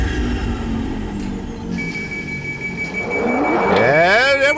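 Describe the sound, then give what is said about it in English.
A pneumatic tube whooshing: a steady mechanical whir with a thin high tone, building toward the end into a louder rushing sweep that wavers and rises in pitch. “The Pneumatic Tube.”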